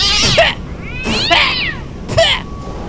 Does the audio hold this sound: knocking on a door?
no